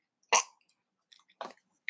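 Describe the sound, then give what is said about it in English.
Wet mouth noises from chewing tobacco: a few short smacking and squelching bursts with brief pauses between them, no talking. “Sorry, me, pardon me. Too much chewing tobacco again.”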